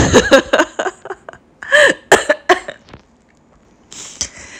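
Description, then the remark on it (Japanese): A coughing fit brought on by laughing too much: a burst of harsh coughs in quick clusters, breaking into laugh-like gasps, then a pause before a final breathy cough and exhale. No talking. “すいません、ちょっと笑いすぎて。咳込んだから、ちょっと一旦止めてました。”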